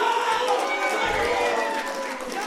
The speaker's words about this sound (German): Kleiner Applaus, wollte ich da jetzt nochmal loswerden an der Stelle.